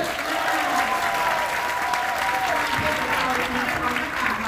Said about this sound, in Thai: ใครคิดว่าสุดยอดปรบมือส่งเสียงดังเลย